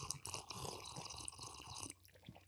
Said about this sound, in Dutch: Yes, en ik slurp nog een keer, dat vond ik leuk om te doen.